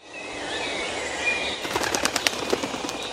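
A soft airy hiss gives way to a rapid flurry of wings flapping, a quick series of sharp beating pulses as birds take off. No one speaks.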